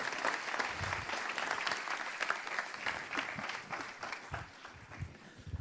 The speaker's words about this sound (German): Applaus.